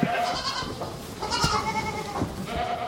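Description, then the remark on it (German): A crowd of young goat kids bleats loudly and continuously as they are let in to their mothers, many high, wavering calls overlapping into a dense, excited chorus, with no talking. “Später lassen wir die Lämmer zu ihren Müttern. Ein Überfall.”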